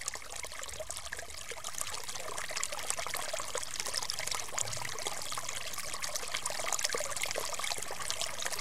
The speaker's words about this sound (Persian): صدای شلپ و شلوب شنید پرسید کیه که شلپ شلوب میکنه؟ جواب شنید که منم یه قورباغه سبز کوچولو ماهرترین شناگر دنیا که دارم توی پر آبترین جای دنیا شنا میکنم